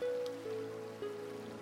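Soft, steady rain patters quietly and evenly throughout, blended with a sustained, gently wavering musical drone tone underneath. No one speaks.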